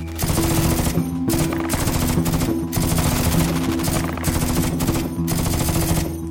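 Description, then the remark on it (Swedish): Sustained bursts of loud automatic gunfire, with tracer rounds fired high into the sky over a city centre: rapid rattling volleys running almost continuously with only brief pauses, a dense crackling barrage with a low steady hum beneath it. “En massa spårljus högt upp i himlen inne i centrum. Jag tänkte, vad är det för jädra tokar som skjuter upp i luften?”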